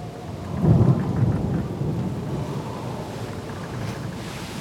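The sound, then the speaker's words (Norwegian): A raging storm at sea in the outer Oslofjord, Norway, with big waves and darkness; a deep rumble of thunder rolls in near the start, over steady heavy rain and gusting wind that roars continuously throughout. “Det er en forrykende storm når de kommer inn Ytre Oslofjord.”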